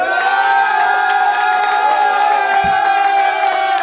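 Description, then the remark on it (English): A large crowd at a rap battle cheers and roars continuously, loud, with overlapping shouts and whoops sustaining a dense wall of noise throughout, making noise for the battler they think won. “All right now, if you feel like … won this battle, make some fucking noise.”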